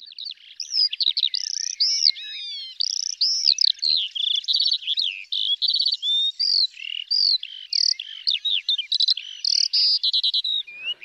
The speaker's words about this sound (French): parmi tous les oiseaux, l'alouette est une des espèces qui ne rigole pas sur le sujet du chant. C'est un des oiseaux qui est aisément capable d'envoyer des centaines de notes à la seconde.